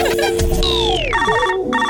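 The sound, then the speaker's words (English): A telephone rings in loud, bright electronic bursts, repeating twice over the closing second, mixed with falling sweeping tones and a busy musical backdrop; no one speaks. “Don't answer that phone.”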